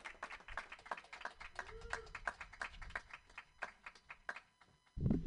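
An audience claps steadily for about five seconds, a scattered patter of sharp, irregular hand claps at moderate volume, ending with a low muffled thump.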